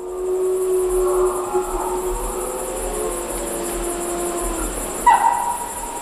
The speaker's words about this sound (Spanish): el caso es que los lobos ahora ya se dispersarán dejarán de aullar y este sonido que es lo más profundo que se puede escuchar en la naturaleza lo más emocionante dejará de sonar hasta dentro de unos meses